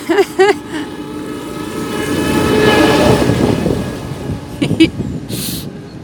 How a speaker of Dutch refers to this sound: Oh. Er komt een trekker voorbij.